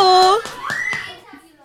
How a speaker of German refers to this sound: Ah, hörst du sie schon, die Kinder? Okay. Hallo.